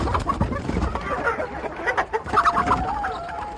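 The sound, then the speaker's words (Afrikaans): Frightened farmyard hens cluck and squawk in a busy, overlapping chorus, with bursts of fluttering wing flaps and scuffling, sounding like a flustered flock. “Daarna gaan Haalburg die boer die oggend se eiers uit die henne se neste, maar die hoenders is net so bang soos die koeie. Hulle klap hulle vlerke en ploeg hard.”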